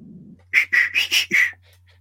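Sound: person whistling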